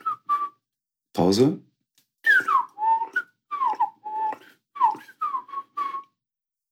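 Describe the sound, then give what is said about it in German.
A person whistles a melodic imitation of blackbird song: a string of short, fluting phrases that glide up and down in pitch. A brief spoken word interrupts near the start. “Die Amsel, die ist ja viel melodischer, die macht ja.”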